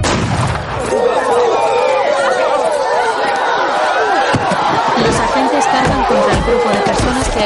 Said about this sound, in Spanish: frente a ellos con el apoyo de los ciudadanos blancos que observan y vitorean la situación.